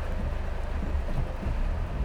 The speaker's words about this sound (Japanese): 外はすごい雨が降ってます。